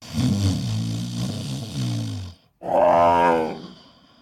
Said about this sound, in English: Uh, plus, the man in the bed snores became so loud,